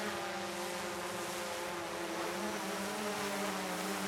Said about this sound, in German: So tönt eine Drohne, die fliegt, und so tönen könnte es schon bald im Tessin und zwar häufiger auf einem ehemaligen Militärflugplatz in Lodrino in der Riviera zwischen Bellinzona und Biasca. Dort soll nämlich ein Drohnenkompetenzzentrum entstehen.